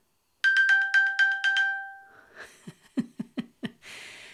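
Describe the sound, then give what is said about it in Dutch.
A phone's find-my-phone alarm, accidentally triggered in a dark, silent hall, rings loudly as a rapid burst of bright, pulsing electronic beeps, then stops, followed by a few short, startled breathy gasps or laughs. “toen het muisstil was in de zaal, raakte ik per ongeluk, vraag me niet hoe, want het was donker en ik was echt niet met mijn horloge aan het prutsen, maar ik raakte per ongeluk dat icoontje aan van zoek mijn telefoon.”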